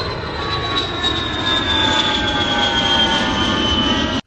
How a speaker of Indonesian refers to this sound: Kemudian katanya pesawat lepas landas jam 2.50 siang.